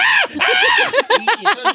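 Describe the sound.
A man loudly imitates a cumbia band's signature shout: a long, high, strained yell followed by a quick run of rhythmic yelping whoops, solo with no talking.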